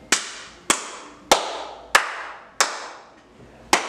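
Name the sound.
clapping applause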